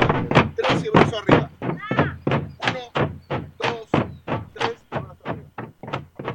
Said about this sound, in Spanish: no se corta el sustain, el eco, eso que le queda, ese, sonido, ¿viste? El bombo de vuelo hace ¡pum! y se queda cantando.